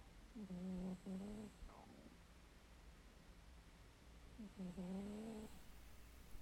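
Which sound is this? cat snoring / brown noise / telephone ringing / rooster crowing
cat snoring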